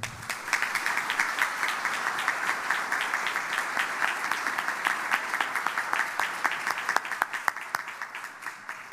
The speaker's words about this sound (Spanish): Gracias a su pasión y profesionalismo es que logramos avanzar constantemente hacia nuevas metas, para los cuales les pido un fuerte aplauso.